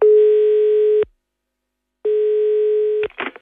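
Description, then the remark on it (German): A steady telephone ringback tone while phoning Gernot Kulis sounds twice, each buzz lasting about a second with a pause between. A brief click follows as the line is picked up. “Und deswegen habe ich den Spieß einfach einmal umgedreht und beim gebürtigen Lavantaler angerufen.”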